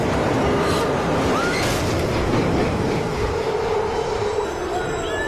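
A subway train roars in along the platform of a subway station in the series House of Cards, a loud, steady rumble with faint metallic wheel squeals sliding in pitch, and no voices at any point.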